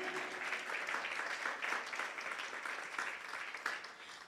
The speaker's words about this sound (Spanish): Y ahora sí, el aplauso, porque es para Él. Amén.